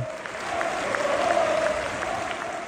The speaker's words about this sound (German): Die Fans auf der Tribüne klatschen nicht etwa für eine gelungene Ballaktion, sondern für all die Akteure, die da gerade auf dem Fußballplatz um ein Leben kämpfen.